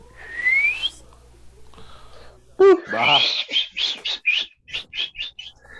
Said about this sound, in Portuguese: Se é no rádio, fica 10 minutos esse assobio.